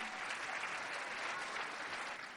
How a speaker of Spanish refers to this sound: Así es que vamos a darles un fuerte aplauso a todos ustedes y bienvenidos aquí.